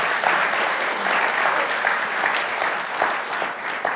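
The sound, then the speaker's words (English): A crowd applauds steadily for about four seconds, a dense wash of many hands clapping at constant loudness, with no voices rising above it. “Can we just give them a huge round of applause as well?”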